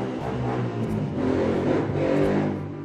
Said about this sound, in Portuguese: Bom, desculpa, mas uma moto passou.